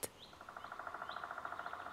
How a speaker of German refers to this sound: Es ist wieder friedlich und freundlich im Wald. Die Vögel pfeifen, die Mückli surren und die Bäume rauschen.